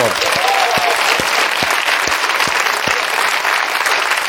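Steady, loud applause from an audience, a dense wash of clapping that fills the whole clip without letting up, with a few sharper isolated claps standing out near the start.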